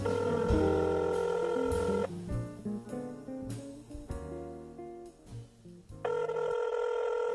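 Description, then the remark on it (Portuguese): Telephone dialing and ringing as a radio host calls a correspondent: a steady electronic ring tone, then a run of shifting dial tones, then the sustained ring tone again. No voices are heard. “Bom, preciso ligar para ela para saber, né?”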